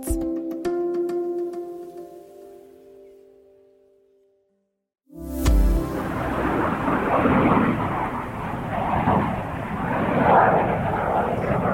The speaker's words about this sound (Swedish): Ja, så här lät alltså S-29, eller Flygande tunnan som det också kallades. Det svenska stridsflygplan som användes vid de hemliga spaningsoperationerna över Sovjetimperiet.